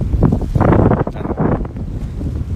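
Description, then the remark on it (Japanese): Loud, continuous wind buffeting the microphone at the sea, with rumbling low-end gusts that surge and dip over a couple of seconds. No voice is heard, just the blustery roar. “風は、気にし、まあ、いっか。”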